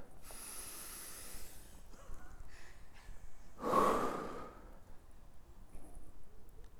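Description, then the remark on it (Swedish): An audience breathes together on a count of three: a soft, airy intake early on, then one loud, rushing collective exhale midway, fading back into quiet room noise. No one speaks. “Ni andas. Kan man inte vara tacksam för att ni andas?”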